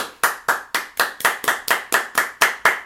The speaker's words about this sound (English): Baker Mayfield. Give me a round of applause.